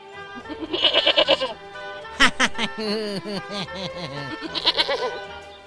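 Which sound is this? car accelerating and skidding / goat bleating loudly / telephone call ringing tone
goat bleating loudly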